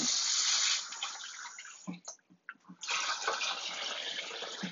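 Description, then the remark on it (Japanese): Steady hissing rush of tap water while dishes are washed at 10:55 at night; the flow stops briefly midway, leaving a few soft clinks and knocks of dishware, then gushes on again. “洗い物をするぞ。”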